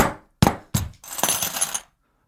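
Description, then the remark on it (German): Keys rattle like a makeshift snare: two sharp metallic hits, then a longer bright jangling shake that stops abruptly, with no one talking. “Ja, ich habe extra meinen Schlüssel dahingelegt, damit das so ein bisschen snare äh, raschelig klingt”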